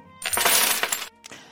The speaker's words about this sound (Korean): 오늘은 주머니가 두둑합니다. 동전이 많은 날 이거 빼먹을 수 없죠. 주머니가 두 개인데 계속 나오고 있습니다.